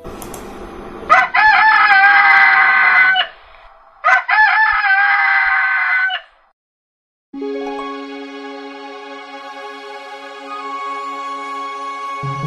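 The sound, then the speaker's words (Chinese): A rooster crows loudly twice in a row, each crow long and harmonically rich, followed by a steady, sustained musical tone that carries to the end. “狗和公鸡是好朋友，每天公鸡都起个大早，叫醒森林里的动物们。”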